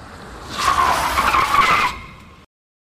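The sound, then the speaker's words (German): Tires screech loudly as two cars make a full emergency stop behind a white Fiat 128 with diplomatic plates that braked suddenly, a sustained high-pitched squeal rising over road noise for about a second and a half before cutting off. “Dann bremst der vorne eingescherte Fiat plötzlich ab. Die beiden Autos dahinter legen eine Vollbremsung ein.”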